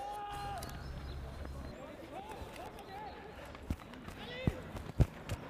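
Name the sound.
horse hooves clip-clopping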